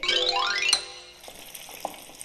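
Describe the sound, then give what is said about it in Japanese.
Freshly harvested, in-season rakkyo coated in tempura batter sizzling as it drops into hot oil: a loud burst of bright, crackling hiss at the start that settles into a softer, steady fry with scattered pops, no voices. “らっきょうの天ぷらを作っていただいていますもう本当に衣であえてらっきょう粉油に今投入していい音ですよね取れたての旬のらっきょうを天ぷらでいただくってこれ以上ない贅沢ですよね”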